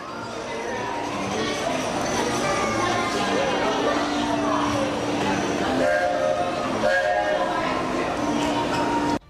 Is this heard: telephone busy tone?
no